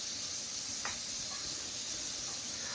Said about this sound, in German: So, jetzt brate ich die Stücke von allen Seiten mal an so ein bisschen. Äh, gar werden muss es nicht. Das wird nachher nochmal in der Soße gegart.